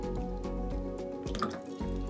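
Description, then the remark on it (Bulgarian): The small liquid-filled plastic container of a nasal aspirator being unscrewed for cleaning after the aspirator head is removed, with soft twisting clicks and faint wet drips and squishes, no one speaking. “Махаме главата на аспиратора, отвиваме контейнера”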